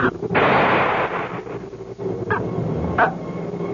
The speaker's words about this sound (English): That was no ordinary bullet.